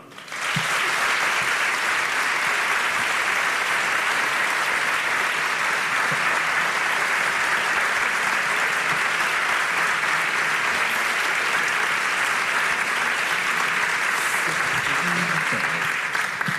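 Sustained audience applause, a dense steady clatter of many hands clapping at once, loud and close, continuing evenly for about sixteen seconds without any talking over it.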